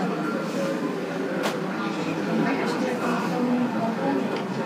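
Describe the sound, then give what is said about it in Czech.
Trams rumble past outdoors by a balcony, a steady, loud wash of rail and street noise that nearly buries the muffled, unintelligible voices of people talking. “Tam je to potom ještě na balkoně a to už je úplně průšvih, protože tam jezdí tramvaje.”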